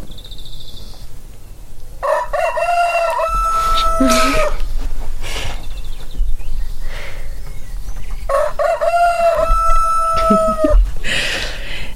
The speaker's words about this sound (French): parce qu'à part chanter, un coq, voilà, il sait pas faire grand chose